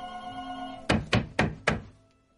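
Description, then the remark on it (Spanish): A telephone rings steadily in a living room, then someone outside knocks four loud, evenly spaced times on a door, before the sound trails off. No one speaks. “Fuera, Claudia da golpes a la puerta.”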